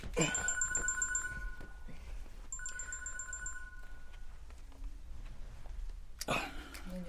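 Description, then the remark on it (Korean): A mobile phone ringtone trills in two bright repeated bursts of rapid beeping tones, clear, with a short pause between them and some faint background noise around, as the phone is taken out of a pocket to check the caller. “주머니에서 휴대폰을 꺼내 발신자를 확인하던”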